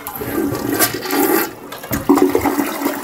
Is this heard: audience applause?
no